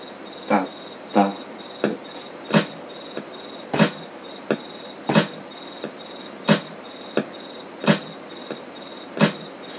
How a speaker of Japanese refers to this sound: 何もないとあれだからクイックカウントメトロノームつけてで普通に録音します